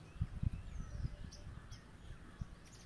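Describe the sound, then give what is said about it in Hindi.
Faint birds call in the background, a few brief high chirps scattered over soft low thumps and a quiet outdoor rumble as the wind blows. “मेरे पीछे पंछियों की आवाज़ भी आ रही है हवाएं चल रही हैं”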